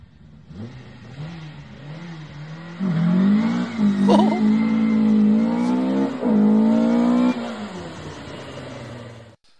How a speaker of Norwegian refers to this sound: Det her er en vanlig bilcrossbil som skal kjøre i åpen klasse.